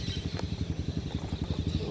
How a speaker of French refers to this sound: évidemment, il y a une moto qui vient se mettre juste à côté de moi, sur la plage.